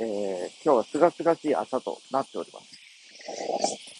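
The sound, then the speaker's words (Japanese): Cicadas drone in a steady, high buzzing chorus outdoors, on a day just after the rainy season that is still a little cool for summer, filling the background throughout while a man speaks over it. “もしかしたらこの、すでにもう、セミの鳴き声が皆さんの、音声を拾ってるのかもしれませんけども、賑やかで賑やかです。”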